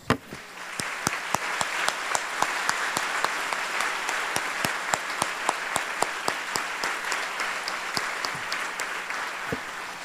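A crowd applauds for Jesus steadily for about ten seconds, a dense wash of clapping with sharp individual claps standing out in a loose rhythm, fairly loud and even throughout, with no talking.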